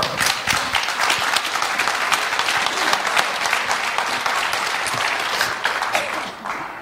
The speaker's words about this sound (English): That's a nice clap.